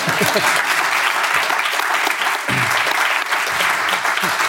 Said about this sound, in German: Das hat einen Applaus verdient.